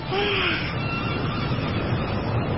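A steady, full roar of wind and ocean waves at sea fills the whole stretch without letup as the wind blows harder and the waves grow bigger, with a faint whistling tone briefly riding over the rushing noise near the start.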